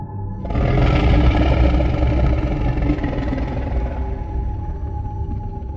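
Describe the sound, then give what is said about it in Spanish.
A long, strange, deep growl, like that of a very large animal, rumbles in after a brief pause and holds steady for several seconds, loud and low-pitched, slowly easing off toward the end with no voices present. “estábamos sentados en silencio, descansando, cuando de pronto escuchamos un extraño y largo gruñido.”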